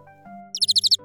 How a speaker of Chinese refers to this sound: 我看到一只红色的鸟在看我。红鸟，红鸟，你在看什么？